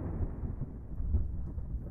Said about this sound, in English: It is not coming from the outside world. It feels like you're hearing it through bone conduction, just in your bones, in the very core of your body. You feel and hear thunder.